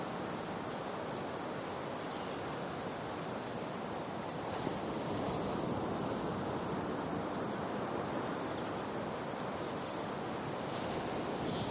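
Ocean waves wash steadily onto a beach, a dense continuous roar of surf with little rise and fall, fairly loud, with no voices or other sounds.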